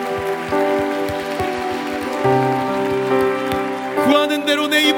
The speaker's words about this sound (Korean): 우리 하나님께 감사와 영광의 박수 올려드립시다